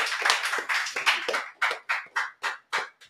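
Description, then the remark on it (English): A burst of applause from several people that thins into a handful of sharp, evenly spaced claps, around six or seven, fading out at the end. No one speaks. The applause celebrates a brother's return home and his success. “So I just want to give another applause.”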